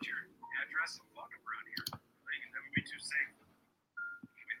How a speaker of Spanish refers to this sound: Le doy clic y no jala.